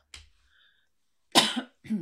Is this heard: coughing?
yes